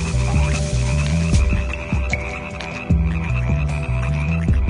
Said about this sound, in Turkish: Hangi örtü açılsa altından bir kurbağa çıkıyor, ağzını açıyor, adamın yüzüne atlıyordu. Nereye el uzatılsa bir kurbağanın kaygan yumuşak derisine dokunuluyordu. Kurbağa sesleri ise hiç yormuyordu. Gündüz böyle, gece böyle.